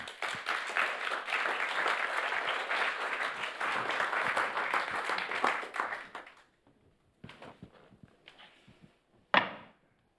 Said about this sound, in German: Gerne ihnen doch einen Applaus, wenn sie führen